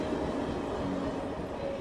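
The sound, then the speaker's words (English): A train rolls steadily along railroad tracks through a town, producing a continuous, loud rumble with a broad metallic roar and no pauses or voices. “People couldn't even get through town to get to their homes after being gone for five to eight days because they had trains rolling through there.”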